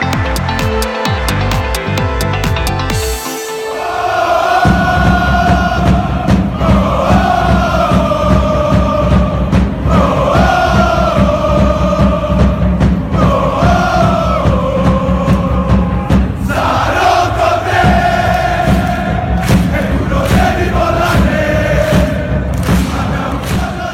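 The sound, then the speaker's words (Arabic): A huge stadium crowd of Napoli football fans, celebrating winning the Scudetto (Italian league title), chants in unison, repeating a rising sung phrase every few seconds over a dense, roaring backdrop, after a brief opening burst of thumping and clatter. “كانت هذه أصوات جماهير نابولي التي احتفلت الموسم الماضي شذا بتحقيق الاسكوديتو”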